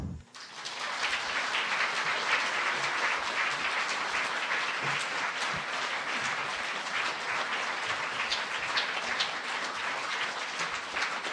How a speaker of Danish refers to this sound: Nå gleder vi oss til å høre Hjort og Torup i samtale. La oss ønske dem opp på scenen med en varm applaus.